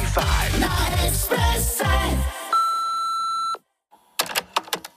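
After a few falling, swooping tones, an answering machine gives one steady, mid-pitched beep lasting about a second. A brief silence follows, then soft clicks and handling rustles.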